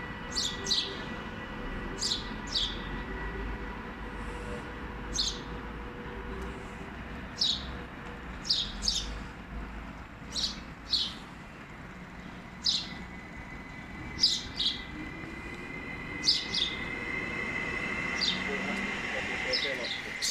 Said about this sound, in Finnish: mutta jos tarkkaan kuuntelee, on täällä ihan perinteinen varpunen. Ei mikään pikkuvarpunen, vaan perinteinen vanha varpunen. Tossa se on viiden metrin päässä ja nythän se yrittää kilpaa siellä laulaa mun äänen kanssa.